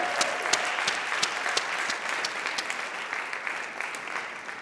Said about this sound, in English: Can we have another round of applause for the gospel choir?